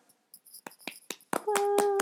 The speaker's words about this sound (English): Are we still clapping? Yeah, I just had to clap for that.